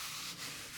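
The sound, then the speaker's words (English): A hand rubs steadily across the large printed graphic on the front of a shirt, reading Polaroid with pictures of Polaroids, making a continuous dry scraping hiss with a slight rhythmic swell, no voices present. “And then the graphic sounds like this”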